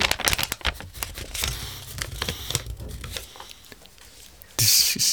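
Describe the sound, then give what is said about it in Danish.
Thin, hard-pressed book paper crinkles and rustles as pages are turned, a dense run of crisp crackles, then a quieter stretch and a sudden louder rustle at the end. No speech. “Der er ikke ret mange bøger, der knitter på den her måde.”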